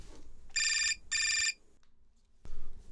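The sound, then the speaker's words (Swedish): A telephone rings twice in quick succession, each burst a bright, trilling electronic ring, clear, followed by a short pause with faint background noise. “Vänta, det ringer. Jag ska bara ta det.”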